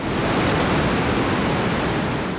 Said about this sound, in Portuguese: um gigantesco túnel que protege a capital do Japão das enchentes. A força da água é tanta que impressiona. Para não destruir o compartimento, os engenheiros precisaram inventar uma forma dela cair em espiral.